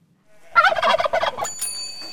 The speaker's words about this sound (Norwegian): Og hvor ellers kan man høre en kalkun